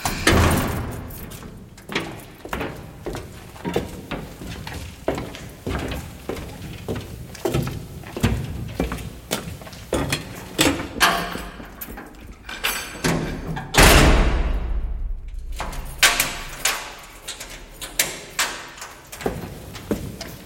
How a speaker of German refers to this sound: So, und dann der Kontrast im Grunde, wenn man in die Fabrik geht, das Scheppern von Metall, was so völlig anders ist, so mechanisch, so kalt.